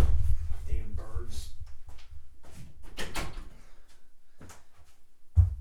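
household object, door being shut

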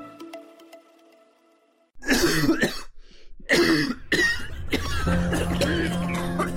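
human body sound, coughing

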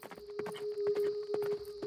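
animal, horse hooves clip-clopping

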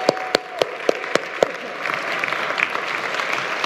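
crowd, audience applause

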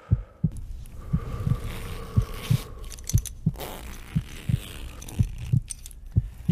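sound effect, pounding heartbeat sound effect

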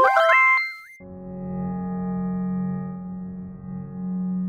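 signal or alarm, phone call dialing tone

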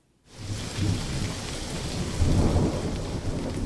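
nature, thunderstorm with heavy rain

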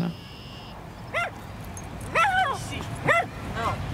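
animal, dog barking

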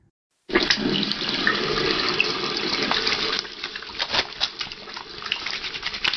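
household object, tap water running

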